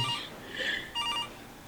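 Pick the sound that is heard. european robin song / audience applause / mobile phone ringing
mobile phone ringing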